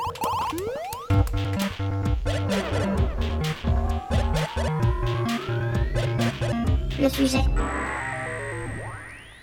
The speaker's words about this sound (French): Eh bien, passons au sujet, au sujet du jour. Sujet du jour, jingle. Jingle.